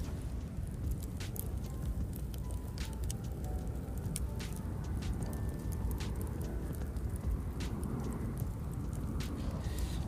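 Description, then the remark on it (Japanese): A campfire burns steadily with a low, rumbling roar, broken by sharp, irregular crackles and pops that snap out at uneven intervals, at a campsite in Wakasu Park at the southern edge of Koto Ward. No one speaks. “今はえー、江東区の南の端っこ辺り若洲公園、えー、キャンプ場にいます焚き火をしてます焚き火の音がこちらです”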